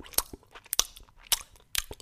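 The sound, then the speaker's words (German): A person imitates a dog smacking its lips, as the dog does while sitting beside him near his head: four wet, clicky smacks spaced about half a second apart, fairly crisp, with no talking in between. “er schmatzt vor sich hin.”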